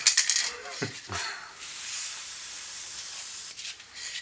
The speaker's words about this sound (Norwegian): Er det juks å ta på sånn spray? Nei da. Det er eh, Riktignok litt feigt, men